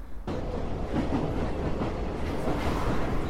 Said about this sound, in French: On prend le métro direction Montreuil.